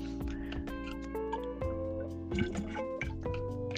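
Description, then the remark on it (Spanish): Someone takes a drink of water, with a few wet sips and swallows over a steady, humming background tone, no talking. “Los cuales estos mismos, perdón que me equivoco, voy a tomar un poco de agua”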